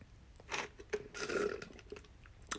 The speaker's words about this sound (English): Sips tea.